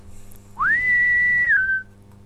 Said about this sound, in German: Der Pfiff war gut, muss ich sagen.